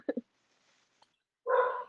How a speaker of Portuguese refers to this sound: está aqui latindo, não sei porquê, mas eu vou tentar falar aqui.